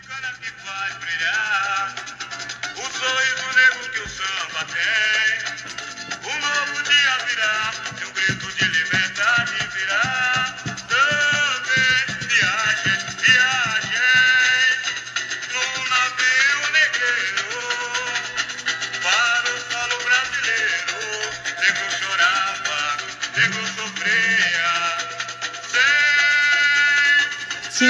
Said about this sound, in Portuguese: vamos ouvir um pedacinho que esse samba realmente é, é muito, muito, muito importante